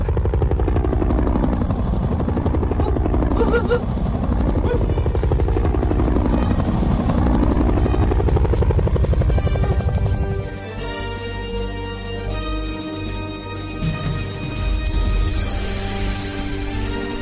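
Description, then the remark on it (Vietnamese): A helicopter searching for a child above a forest: its rotor beats loudly and steadily overhead, with engine whine and Doppler-like pitch sweeps; the noise eases slightly partway through as it keeps hovering, with no talking. “cha xuống đây dưới khu rừng này nè cha đang đi tìm con trên chiếc trực thăng nè”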